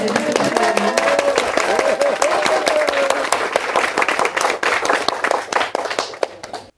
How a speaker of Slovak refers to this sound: Sotva sme zatlieskali, áno, trochu aj sami sebe, už prišla dôležitá otázka.